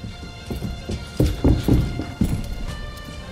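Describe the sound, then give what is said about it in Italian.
Horse hooves clip-clop in an uneven, steady rhythm, a series of clear thuds over a faint background hum, with no voices. “Eravate voi a cavallo nel bosco?”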